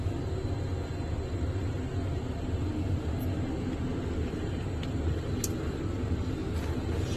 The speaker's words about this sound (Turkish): Mas pode desligar a aeronave, né?